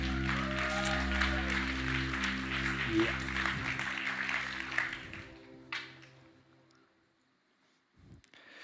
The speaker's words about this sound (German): Und bevor ich damit loslege, lass uns der Band auch nochmal einen fantastischen Applaus geben. Vielen Dank.